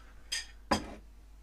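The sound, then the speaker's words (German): Two quick clinks of dishes knocking together while being washed up, the second louder and fuller with a short ringing tail, with no talking. “Ich kann das Geschirr spülen.”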